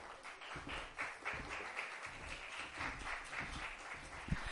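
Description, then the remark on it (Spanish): A crowd at a book presentation applauds steadily, a dense wash of many hands clapping at an even, sustained level throughout, with no voices standing out. “Un aplauso”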